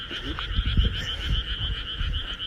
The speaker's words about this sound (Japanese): だいぶカエルの声が聞こえてきてるかなと思いますけどるの初めてですけど結構田んぼがあってカエルが間近に鳴いてる感じですね